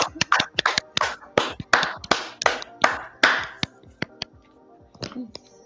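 Applause for the audience during a live broadcast: a flurry of sharp, overlapping claps, loud at first and thinning out after a few seconds into a handful of scattered, fading claps.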